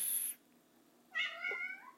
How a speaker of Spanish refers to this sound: gatos que maullan. Ahí está.